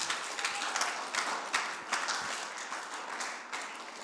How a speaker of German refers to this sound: Okay, ein Applaus für ihn, ja, Trossingen.